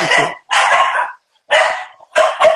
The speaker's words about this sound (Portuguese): É a Celine, latindo loucamente.